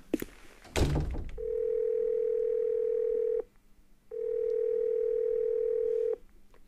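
A phone's ringback tone as a father calls his son: after a brief handling thump, two long, steady electronic beeps of about two seconds each, separated by a short pause, clear.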